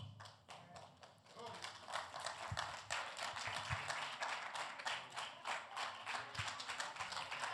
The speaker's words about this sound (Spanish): Tome su asiento y démelo un aplauso fuerte al Señor.